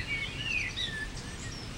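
Thin, high chirps and short whistled phrases from wild birds ring out over a steady outdoor hiss, several calls overlapping with no voices present, in open nature in the Mögeldorf district of Nuremberg, Germany.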